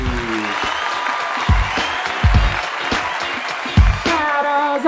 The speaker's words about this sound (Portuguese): E hoje está especialmente aqui no Valascast. Recebo com a salva de palmas,